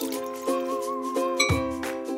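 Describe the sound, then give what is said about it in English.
Several drinking glasses clink together in a toast, each tap leaving a bright, sustained ringing tone that overlaps the next. Four or so clinks in quick succession, with no talking. “Cheers. Cheers. Cheers.”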